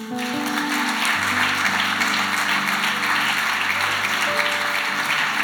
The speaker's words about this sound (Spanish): Damos un fuerte aplauso a Dios.